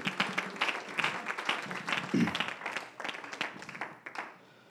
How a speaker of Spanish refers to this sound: Demos un aplauso al Señor al sentarse. Gracias por estar de pie.